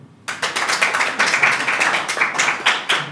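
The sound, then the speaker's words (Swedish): An audience breaks into applause in answer to a question, clapping if they currently have no medicine or drugs in their body; many overlapping hand claps form a dense, steady patter that holds at an even loudness for a few seconds, with no voices over it. “Uh, eh, då undrar jag, hur många, alla som inte har just nu någon form av medicin eller läkemedel i kroppen, applådera.”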